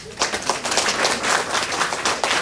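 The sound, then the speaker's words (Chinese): A crowd at an anniversary sales event gives themselves a round of applause, many hands clapping in a dense, crackling wash that holds at an even loudness throughout, with no voices standing out above it. “你觉得你的结果很满意，给自己一个热烈掌声。”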